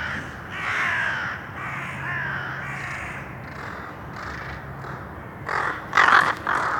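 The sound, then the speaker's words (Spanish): Several crows in a city caw repeatedly in a steady series of harsh calls, fairly loud, with a few sharper, louder caws near the end and no talking. “Espera, esos cuervos me están, me están siguiendo.”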